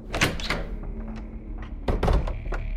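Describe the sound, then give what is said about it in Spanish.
The front door of a house is unlatched and pulled open, with a cluster of sharp clacks and thumps at the start and another burst of knocks and rattles near the end, no voices. “¡Abra, por favor! ¡Abra la puerta!”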